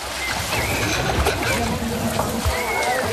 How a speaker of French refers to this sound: Vous entendez Ceci est le son d'un enfant qui se noie. Une personne qui se noie ne crie pas et n'agite pas les bras.